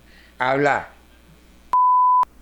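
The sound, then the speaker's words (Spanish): A brief voice is followed by a single loud, steady electronic beep lasting about half a second, the flat tone of a phone line disconnecting after a call ends. “Bueno, ya el uso colgó.”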